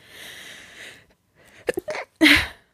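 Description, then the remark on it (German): A person does a fake sneeze: a drawn-in breathy hiss, a brief pause, a few short catches, then one loud, sharp burst, with no talking. “Soll ich mal ein Fake niesen vormachen, damit ihr es alle von mir hört?”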